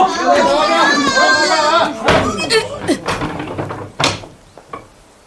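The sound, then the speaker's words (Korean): The front gate of a house is firmly shut and locked: after a burst of overlapping voices, a heavy wooden thud lands, followed by smaller knocks and rattles of the latch and one more solid bang. “외할머니는 구장어른과 친구네 아버지 등의 도움을 받아 집안에 들어온 사람들을 모조리 밖으로 내쫓은 다음 대문을 단단히 걸어 잠갔다.”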